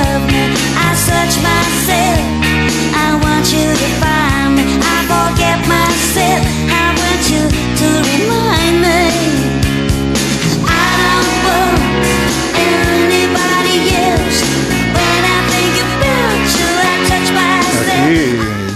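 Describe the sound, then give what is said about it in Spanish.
A pop song plays loudly and steadily, with a woman singing over a full band backing of bass, drums and keyboards, no speech over it. “Digamos que era una canción que es un homenaje al amor, al amor propio y suena así.”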